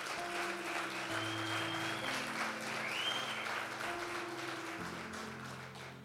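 An audience claps steadily and loudly for several seconds, applauding the King of Kings, a dense, continuous wash of applause over sustained low keyboard chords and a faint high whistle-like tone.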